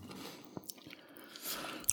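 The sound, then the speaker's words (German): Crunchy potato chips that taste like chicken wings being chewed, with a few sharp, crackling crunches followed by a softer, steady grinding of mouth sounds. No talking. “Oh, die schmecken tatsächlich wie Chicken Wings.”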